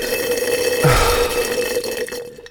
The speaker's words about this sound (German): Kannst du es bitte lassen, die Hörer mit deinem, mit deinem Geblubber da zu nerven?